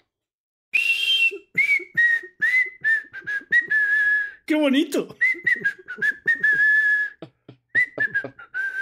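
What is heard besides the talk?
person whistling a tune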